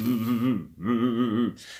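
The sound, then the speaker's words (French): In a laughter yoga exercise, a voice mimics a car engine cranking without catching: two wavering, sputtering vocal bursts with a short pause between, fairly loud, ending in a breathy exhale. “Par exemple, je pourrais imiter le son d'une voiture qui démarre pas.”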